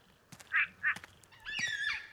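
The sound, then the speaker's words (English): A frog in a forest with pools of water gives duck-like calls: two short, nasal quacks, then a longer drawn-out call, clear against a quiet outdoor background. “It's not a frog, but I, I think I can hear a different sort of duck somewhere in this forest.”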